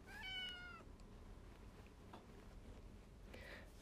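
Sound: domestic cat meowing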